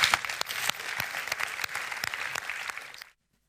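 An audience applauds steadily for about three seconds, a dense wash of many hands clapping with a few sharper individual claps standing out, then it cuts off abruptly into silence.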